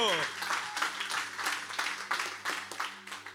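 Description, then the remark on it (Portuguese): Crowd applause for the Lord fills the moment, a dense wash of many hands clapping with irregular sharper bursts, fairly steady in loudness, over a low sustained hum. “Aplauda ao Senhor.”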